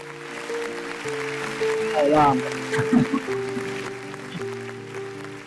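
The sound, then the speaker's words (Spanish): Banfield football supporters chant together in a sustained, sing-song melody, holding long notes that step up and down in pitch, with a few louder shouted bursts partway through. “Sí, este es un, es un sample que me grabó la hinchada de Banfield para el programa.”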